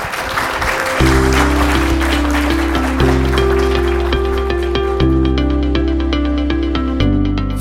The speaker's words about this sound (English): Presenting to us all, let's give it a round of applause here.